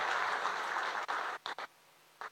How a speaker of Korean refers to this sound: 우리 박수 한번 쳐주세요. 축복의 박수.